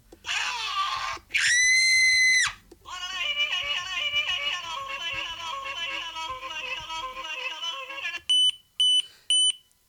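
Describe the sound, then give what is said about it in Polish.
Loud electronic doorbell beeping: three short, sharp, high-pitched beeps in quick succession, following a stretch of loud warbling electronic tones and a brief shrill buzz. The doorbell is set to a mode where each press plays a different ring. “To pikanie no. mówi nam o tym, że jeśli ustawimy dzwonek w tej pozycji, to właśnie będzie to, o czym mówiłem.”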